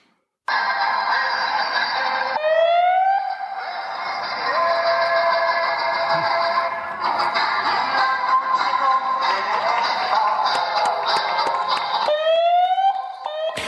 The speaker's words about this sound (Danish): vi har et lydklip, nu siger du moral og optimisme, øh, hvor politi og brandvæsen øh, de kører rundt i gaderne og spiller en, øh, en 80'er-klassiker. Lad os lige prøve at høre det